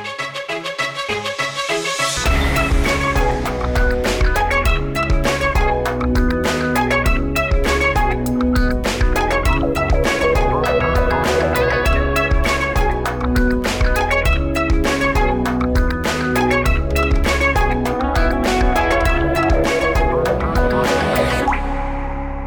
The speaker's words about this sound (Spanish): gracias Manuel Aumaitre por esta composición del intro de este programa Descubriendo el agua tibia